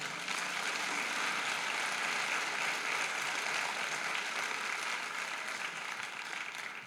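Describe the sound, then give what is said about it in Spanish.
An audience applauds the Lord steadily for several seconds, a dense, even wash of many hands clapping at constant loudness that fades slightly at the end, with no one speaking. “Le damos un aplauso al Señor por eso.”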